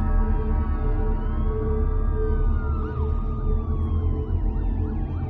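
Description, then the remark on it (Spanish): Police sirens wail in the distance, their rising and falling tones overlapping with a fast yelping pattern, all over a steady low rumble of traffic or engine noise. “El chillido de las sirenas de policía se escucha a la distancia.”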